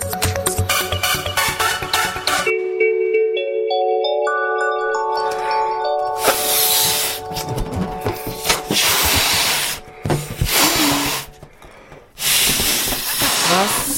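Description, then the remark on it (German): After a brief melodic jingle, someone blows up a balloon by mouth: long, loud, breathy puffs of air, broken by short pauses for breath. “Ich puste Luftballon auf.”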